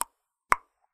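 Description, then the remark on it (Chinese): A voice imitating a lyrebird mimicking a hammer striking a nail: three sharp, evenly spaced knocks about half a second apart, each with a brief mid-pitched ring and quick fade, with no talking. “然后他学的都是一些什么榔头在敲铁钉啊，嗯、或是一些锯子在削木头这种声音。”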